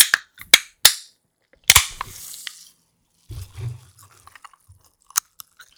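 Sharp clicks of a can tab being worked, then a loud crack followed by a brief fizzing hiss as a Rain energy drink can opens, with faint handling clicks afterward.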